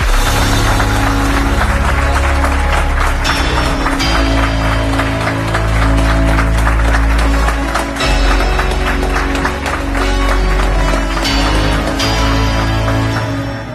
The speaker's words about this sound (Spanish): Y quizá muchos oyentes se pregunten que por qué suenan aplausos en el dragón invisible. Pues es que nos encontramos en un lugar muy especial. Nos encontramos en el undécimo encuentro de enigmas de la ciencia organizado por el grupo SIPE en Pinseque